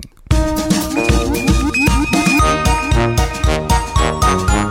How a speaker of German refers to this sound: Folgende Idee, wir hören ganz kurz ins Intro rein und dann äh, hast du uns wieder.